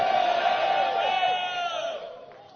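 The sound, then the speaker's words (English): An audience shouts a loud, drawn-out amen in unison, many voices holding one strong pitch for about two seconds before trailing off. “I thought I would hear powerful amen.”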